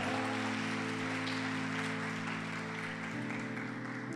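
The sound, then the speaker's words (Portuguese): A church audience applauds the Lord during a sermon, clapping steadily for several seconds, a dense, continuous wash of clapping that stays loud throughout, with sustained keyboard or organ chords droning underneath. “Se é para aplaudir, aplaude ao Senhor.”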